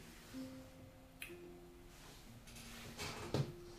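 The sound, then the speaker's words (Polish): Soft, crinkly crackling of paper as a forbidden book has its clasps removed and is opened, coming in a few short rustling bursts with a sharper snap near the end, fairly quiet against a faint background hum. “A on sięga, przesuwa ją w swoją stronę, patrzy na to zamknięcie, zdejmuje okowy, rozkłada, słuchaj, ten trzask. A papieru. Otwieram.”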